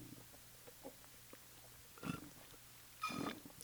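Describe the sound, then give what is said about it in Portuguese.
Someone gulping water, with a couple of throaty swallowing sounds, each a short wet burst, after a few faint sips and clicks. No one speaks. “Eu falei que ia dar um gole, mas eu fui com muita sede ao pote de água e dei vários goles, porque eu estava com sede, né?”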